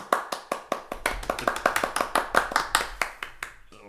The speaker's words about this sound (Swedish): jävla tama applåd. Jag är rädd om dina öron.